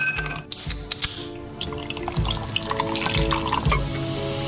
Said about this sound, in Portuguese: Calhou o nome dele soar a bebida gaseificada a cair no copo, embora sou mais assim quando é dita à inglesa, Schweppes, porque a versão original devia ser dizer Schweppe. E só apenas parva. É. Podíamos ouvir outra vez o som. É tão bom.